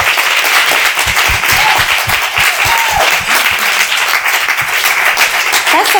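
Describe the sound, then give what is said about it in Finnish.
An audience applauds this year's Pink Ribbon (Roosanauha) designer, a steady, dense, loud wash of many hands clapping at once with a few faint whistles rising above it. “Vielä aplodin.”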